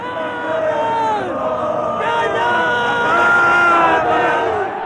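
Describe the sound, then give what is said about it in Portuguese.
A large crowd of radio listeners shouts together, recorded on a tape recorder 43 years earlier, many voices overlapping in a loud, continuous roar that swells and surges for several seconds, with individual cries rising above the mass. “E gritaram. Gritaram num país que, em geral, falava baixinho.”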